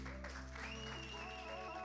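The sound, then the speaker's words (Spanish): An audience at Casa Church Miami claps steadily throughout for those who made a commitment that day, a soft continuous patter of applause blended beneath sustained, droning keyboard chords with a high gliding tone. “Lo más lindo que me pasó en la vida si tú tomaste esta decisión en el día de hoy, si tú tomaste este compromiso en el día de hoy, este aplauso es para ti.”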